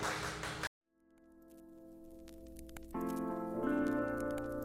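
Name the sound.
audience applause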